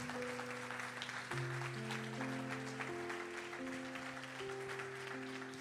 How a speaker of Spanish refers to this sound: Ahora sí, dale tu mejor aplauso al Señor.